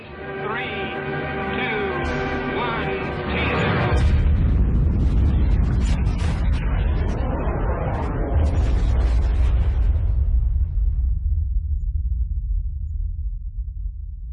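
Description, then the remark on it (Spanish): A thermonuclear (hydrogen) bomb test explosion erupts after a brief voice. Its power is similar to 10 million tons of TNT, 600 times that of the Hiroshima bomb. It unleashes a loud, sustained roaring rumble with crackling bursts that rolls on for about ten seconds before slowly thinning out. “La potencia de la explosión es similar a la de 10 millones de toneladas de TNT.”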